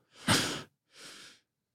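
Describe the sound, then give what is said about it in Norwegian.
Two airy breaths in quick succession, the first sharp and forceful, the second softer and smoother, like a deep breath followed by a calm release, with no talking; a calming breathing exercise of two very deep inhales, then breathing out through the mouth as calmly as possible. “to ganger liksom veldig langt inn, og så bare puste ut så rolig du kan.”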